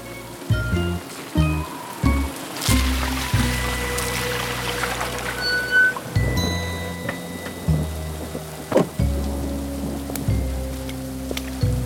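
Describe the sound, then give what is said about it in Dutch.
Steady, heavy rain beats against the windows of a large house while wind blows hard through the surrounding trees, gusting and swelling, with low droning tones rising and falling underneath throughout. “De wind waait hard door de bomen rondom het grote Pietenhuis en de regen slaat tegen de ramen.”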